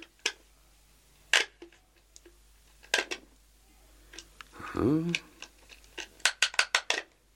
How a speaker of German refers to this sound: Es gibt nämlich eine ganz merkwürdige Stelle, als dieser Panzerschrank geöffnet wird. Ja. So. Und nun die Zahlen.